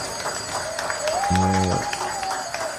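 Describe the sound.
Hospital staff of the Santa Casa, gathered on the ramp, applaud a patient discharged after Covid, with steady, dense clapping throughout, mixed with murmuring voices and a brief sustained whistle-like tone rising in pitch partway through.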